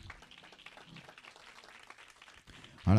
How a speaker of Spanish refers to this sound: Así que den un aplauso al Señor por eso.